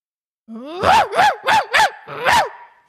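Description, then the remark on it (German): A person imitates a dog barking: a brief low whine, then five quick, loud woofs in a steady rhythm, the last one slightly drawn out, with no other talk. “Ja gut, das ist ein Hund.”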